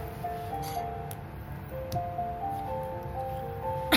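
A phone call's ringing tone plays: steady electronic beeps that pause and repeat at a moderate level over a low background hum, with no one speaking.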